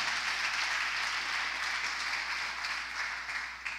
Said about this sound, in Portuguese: Dá um aplauso aí, maravilha. Porque não foi um aplauso, né, irmão?